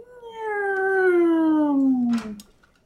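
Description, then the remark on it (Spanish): A voice imitates a creaking door swinging open: one drawn-out, whining tone slowly sliding downward for about two seconds, ending in a short breathy hiss. No other sounds accompany it. “ese sonido de, puerta que se está abriendo, ¿no?”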